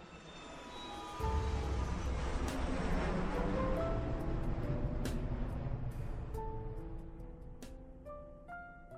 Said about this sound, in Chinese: 飞机很快的起飞，随着一声呼啸。